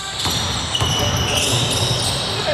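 A basketball bounces a few times on a gym floor while sneakers squeak in quick, high chirps, with indistinct voices of encouragement echoing through the busy, reverberant practice space during one of the last training sessions of the Champagne Basket team.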